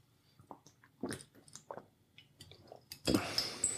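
Quiet mouth sounds of someone taking a quick sip of water: small wet clicks and gulps in an uneven rhythm, ending with a louder, brief rustling clatter.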